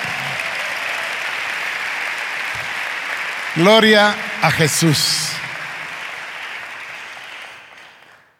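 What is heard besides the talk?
loud audience applause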